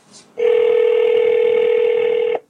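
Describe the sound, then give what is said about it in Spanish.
A telephone answering machine tone: one loud, steady, mid-pitched electronic beep holding for about two seconds before cutting off, preceded by a faint brief rustle, with no talking. “Otra vez esta maldita grabadora.”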